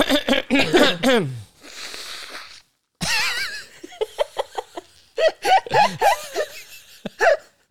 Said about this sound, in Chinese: 我我在那边咳，然后你在那边擤鼻涕， 而且我喉咙弹一大堆。